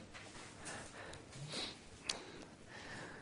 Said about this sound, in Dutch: Sorry als ik een beetje snotter vanmorgen.